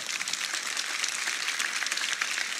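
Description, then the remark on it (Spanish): A crowd at Iglesia Manantial church applauds a family, a dense continuous patter of many hands clapping at once, bright and hissy, holding an even moderate level throughout with no voices on top. “Bueno, denle un fuerte aplauso a esta familia.”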